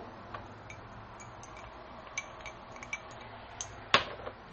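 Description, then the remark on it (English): A glass is set down into something after whiskey is put in, with light clinks: several small, bright chinks scattered through the quiet, then one louder clink near the end. Fairly soft, no voices. “You put the whiskey in there. And then you put the glass in there.”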